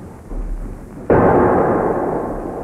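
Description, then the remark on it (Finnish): A single heavy harpoon cannon shot, fired from a ship at a fleeing creature, booms out suddenly over a low rumbling background, its loud blast trailing off into a long, slowly fading roar. “Tykki valmiina! Ampukaa!”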